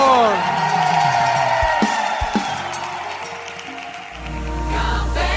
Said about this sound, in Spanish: Vamos a dar ese aplauso al Señor.